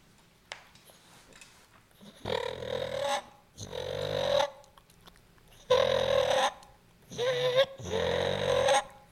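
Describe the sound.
A turkey purr made on a mouth call by rolling the tongue: five rolling, buzzy bursts of about a second each, fairly loud, separated by short pauses, with no talking.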